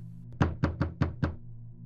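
Five loud, sharp knocks on a door in quick, even succession, with a low steady hum underneath and no voices.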